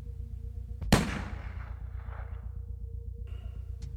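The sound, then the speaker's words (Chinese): A single loud gunshot cracks out and rolls away in a long, echoing decay, heard over a steady low droning hum. “随着那回响的枪声穿透漫长的时间，再次击中了我。”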